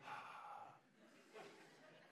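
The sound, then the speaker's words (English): Soft breathing into a phone with two airy breaths, a longer exhale followed by another after a short pause, quiet and slightly muffled, with no talking. “I'm just sitting here breathing.”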